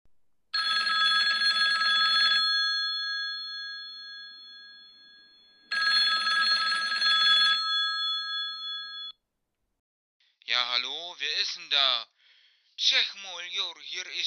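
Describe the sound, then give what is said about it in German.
A telephone rings loudly with an incoming call during a recording, two long electronic ring bursts with a steady tone and a pause between, then the ringing stops and a person starts talking. “Und da hast du mich gerade angerufen, während ich aufnehme.”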